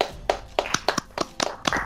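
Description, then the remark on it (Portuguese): A steady run of about eight sharp hand claps at an even, unhurried pace, each crisp and moderately loud, with no voices alongside, applauding football coach Osório. “Palmas, palmas, professor Osório.”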